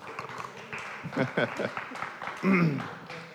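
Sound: applause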